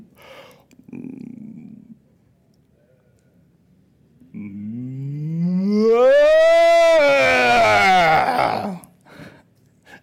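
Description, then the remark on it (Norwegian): Several voices join in a long, drawn-out imitation of a cow's moo, rising and swelling in pitch before fading, preceded by a brief low murmur. “Ja, og hva sier kua?”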